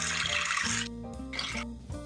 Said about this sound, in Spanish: Se me cae el techo, Está lloviendo fuerte.